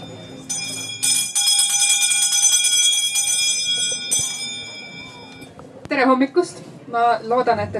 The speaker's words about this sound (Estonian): nüüd ikka veel kuulate meid peale, mind peale seda, kui teie kõrvad on lukustatud selle karmi kellahelinega.